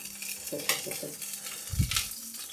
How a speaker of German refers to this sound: Sind hier gerade am Kochen, also falls ihr Bratgeräusche hört, dem ist so.